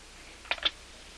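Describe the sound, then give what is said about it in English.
A telephone receiver clatters down onto its cradle as a woman hangs up on the caller, giving two quick plastic clicks in succession, followed by quiet with a faint steady hiss. “When you give her what she wants, she hangs up the phone in your ear.”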